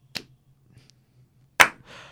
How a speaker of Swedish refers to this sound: Eh, jag ska göra en slow clap.